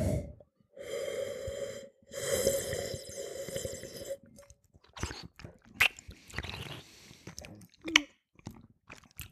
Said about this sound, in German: So, jetzt so. werde ich ein bisschen schlürfen, ja. Mhm. nicht erschrecken.